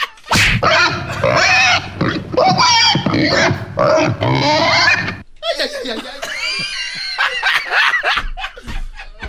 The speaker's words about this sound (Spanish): Como que el diablito hace como puerco cuando le pegan.